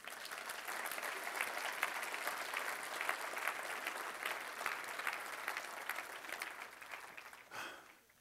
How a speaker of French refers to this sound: Est-ce qu'on peut juste donner une main d'acclamation à Jésus?